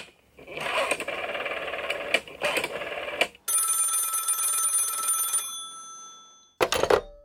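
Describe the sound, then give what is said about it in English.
A telephone rings during an outgoing call in a steady electronic trill for several seconds, then a higher sustained tone takes over, followed by a short burst of ringing near the end, loud with no talking. “Anyway, I'm calling calling Ixie.”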